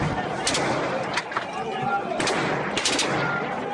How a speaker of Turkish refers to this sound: Oo yine yine ateş ediyor. Yine ateş ediyor. Helikopterden yine ateş açıldı.